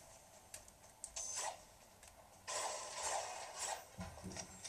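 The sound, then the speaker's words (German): Repeated clicky, crunching hits from a video game pickaxe mining blocks, a few separate strikes and then a denser run of rhythmic chipping, fairly quiet and with no voices. “Marshmallow, die Spitzhacke halt”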